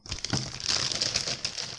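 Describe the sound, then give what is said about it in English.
Continuous crinkling and rustling of a plastic bag of ice cubes, with faint clinks of the cubes shifting inside, lasting a couple of seconds with no talking. “You know, I got the ice cubes in the plastic bag. I'm sure I can hear this.”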